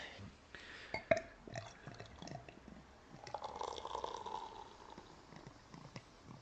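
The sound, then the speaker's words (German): Bottled beer glugs into a glass through a Taste Hero device meant to make bottled beer like freshly tapped beer, with bubbly, fizzing foam building up over several seconds; irregular splashy pulses, fairly quiet, no talking. “Wir probieren einmal. Ich gieße ein bisschen was ein.”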